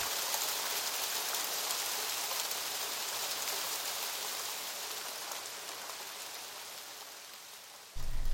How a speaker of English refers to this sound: So we were just sat there getting cold, looking at the rain and listening to the relentless drum of rain on plastic, and just staring at the food and trying not to eat it.